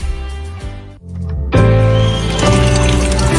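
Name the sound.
water running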